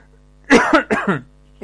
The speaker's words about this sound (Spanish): Ando con tos, pero vuelvo a aclarar, no, no tengo tos con fiebre, sino que es tos de encierro, ya que estos últimos días han sido puro guardarse en casa, hermano y decir, puro guardarse en casa.